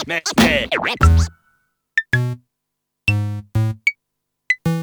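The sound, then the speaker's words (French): A short, quirky radio jingle opens with swooping, boing-like electronic sounds, then a string of bright tonal stabs, each marked by a sharp click. It plays loud, with no talking, leading into a debate segment. “On va passer maintenant au débat est-ce que la BD fait moins lire Jingle.”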